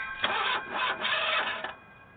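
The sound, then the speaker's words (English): A run-down car's engine with no gas in it cranks over and over in a steady, labored rhythm, about four grinding pulses, without catching, then cuts out, leaving a faint hum. “You didn't put no gas in this raggedy motherfucker.”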